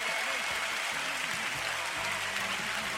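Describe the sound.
A steady wash of applause welcoming a returning guest, dense clapping that holds at an even level for about three seconds, with a faint voice murmuring underneath.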